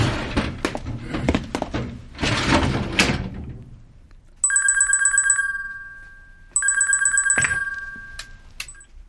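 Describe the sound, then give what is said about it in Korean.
A telephone rings twice in electronic trilling bursts, loudly, with a call from the Geoje police station, after some shuffling and knocking noises; a dull thunk lands between the rings. “저 자리 뜨면 바로 경찰에서 전화 올 겁니다.”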